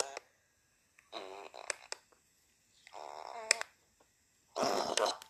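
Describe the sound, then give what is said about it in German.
Three separate fart sounds from a man during a conversation in a studio, each about half a second to a second long, buzzy and sputtering with a rippling texture, clear with quiet gaps between them and no talking. “Mann, wir reden hier über irgendwas und der pupst hier nur rum.”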